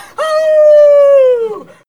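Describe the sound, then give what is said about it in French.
A person imitates a she-wolf howling at the full moon: one long, loud, steady mid-pitched note held for over a second, sliding slightly downward and breaking off with a quick drop at the end. “Je suis une louve qui crie à la lune.”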